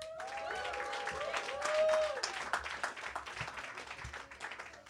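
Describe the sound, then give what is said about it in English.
An audience claps steadily for several seconds to welcome a professor before an open mic, with a brief whistle or cheer near the start, the applause gradually thinning out toward the end. “Give it up for Julie Hart.”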